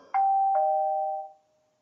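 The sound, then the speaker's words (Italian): A doorbell chimes a clear two-note ding-dong, a higher tone followed by a lower one that rings out and fades over about a second, fairly loud with no voices. “Oppure potete venire a suonare alla nostra porta e il campanello sapete dov'è.”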